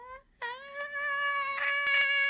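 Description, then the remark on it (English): A human voice imitates a dying cat: a brief squeak, then one long, strained, steady wail held for about two seconds, loud, with no talking. “Okay, this dying cat okay. noise is not. I was kind of curious how long I could make that noise, and then I realized it was going to be for way too long.”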